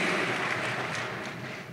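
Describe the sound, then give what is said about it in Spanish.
An audience applauds the Bible school (Escuela Bíblica), a dense, steady wash of many hands clapping together that stays fairly loud throughout and eases off only slightly toward the end, with no voices over it. “Mire qué lindo es ver hoy están con nosotros el color azul de Escuela Bíblica para que pida un fortísimo aplauso.”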